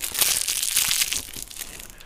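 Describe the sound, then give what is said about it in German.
Crinkling of a plastic Twizzlers candy wrapper, a dense, crackly rustle that is loudest in the first second and then eases off slightly, with no voices. “That's the sound of Twizzlers.”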